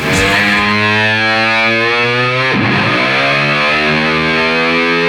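Heavily distorted electric guitar roars loudly and continuously, its sustained growling tones bending and sliding around the middle like a revving car engine, with no voices.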